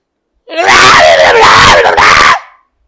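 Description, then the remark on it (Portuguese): A voice imitates a hysterical scream, one loud, shrill, wavering shriek lasting about two seconds, alone, with pitch sliding up and down before cutting off. “É, cara, eu tenho pavor de casa onde tem grito.”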